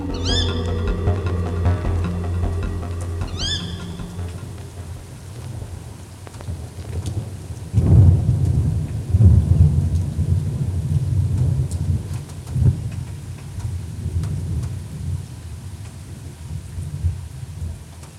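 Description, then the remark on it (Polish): Steady rain hisses throughout a thunderstorm in Legnica while deep thunder rolls in around the middle, rumbling loudly for several seconds and then fading. Near the start, a cat meows twice. “E, przeszły burze. E, nawet dzisiaj przeszła jeszcze jedna, no ale ta właściwa przeszła chyba dwa dni temu.”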